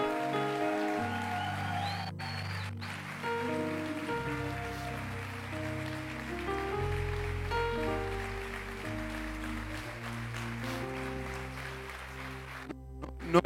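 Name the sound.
audience applause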